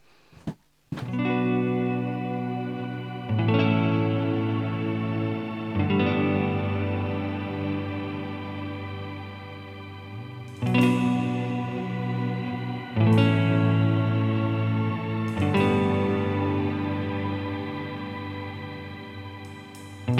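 A band plays a full, loud stretch of music dominated by thick, distorted guitar chords that ring out and shift every few seconds, with effects-heavy sustain and no voices.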